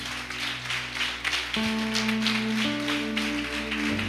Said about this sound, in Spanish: Dele un fuerte aplauso a nuestro Dios.